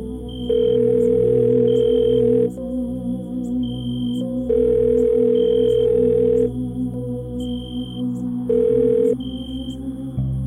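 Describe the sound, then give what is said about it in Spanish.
An outgoing cell phone call to a supervisor: the ringback tone repeats in steady two-second bursts separated by pauses, heard clearly through the handset with a faint hum underneath and no one speaking. “Entonces decidí mejor regresar a la caseta y llamé a mi supervisor por mi teléfono celular para explicarle lo que estaba sucediendo.”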